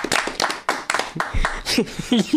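A short burst of hand clapping from a small group at a metal quiz, for a contestant with two points, quick, irregular and loud, with a few voices calling out underneath toward the end.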